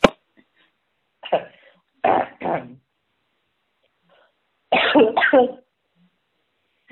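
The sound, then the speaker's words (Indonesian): A harsh coughing fit: a single cough followed by two quick pairs of rough, raspy coughs separated by short silences, with no talking. “ya ampun batuk”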